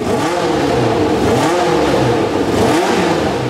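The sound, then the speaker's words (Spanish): A loud Formula 1 race car engine screams, its pitch surging upward in about three repeated revving sweeps, with no voices present; the 1982 car of Roberto Guerrero, carrying the Café de Colombia logo. “Roberto Guerrero, el primer piloto colombiano de Fórmula 1, compite con el Lobo de café de Colombia en su carro.”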